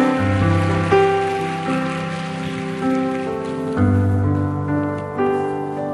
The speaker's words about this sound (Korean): 우리 올라오실 때 큰 박수로 환영하도록 하겠습니다.